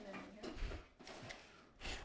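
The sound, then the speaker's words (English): The bottom drawer of a set of drawers holding toy Batmobiles slides open and shut, with a few scraping rushes and low wooden thumps over about two seconds, while muffled voices murmur. “that's the bottom drawer.”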